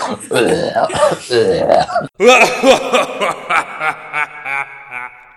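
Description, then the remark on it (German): A loud, drawn-out burp, followed by a series of shorter rhythmic croaking pulses that fade out, with no talking alongside. “du aufgehört hast zu reden, dann meine Rülps, dann das Outro.”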